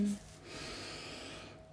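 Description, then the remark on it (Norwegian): A slow, steady intake of breath through the nose during a guided breathing exercise, soft and airy, lasting over a second, with no talking. “Neste gang du puster inn, holde pusten to sekunder før du slipper pusten ut igjen.”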